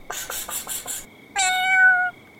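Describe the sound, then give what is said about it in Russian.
A cat gives a quick run of five chirpy little calls, pauses briefly, then lets out one clear, drawn-out meow, with no talking. “Тогда к ней на помощь, сама того не подозревая, пришла кошка.”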